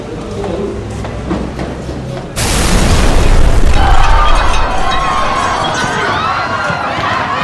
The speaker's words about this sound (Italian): Banca Nazionale dell'Agricoltura? Sì. Mi scusi, chiamo dalla questura. Abbiamo saputo che c'è appena stata un'esplosione da voi. Sì, poco fa. Fortissimo.